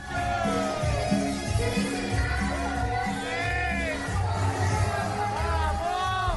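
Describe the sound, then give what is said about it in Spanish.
A dense crowd of wildly excited French people shouts, whoops and cheers continuously at a lively party, with rising excited yells over a steady roar and thumping low beats underneath, loud throughout. “Pero, pero escuchen cómo fue la, fiesta que tienen en ese momento los franceses enloquecidos.”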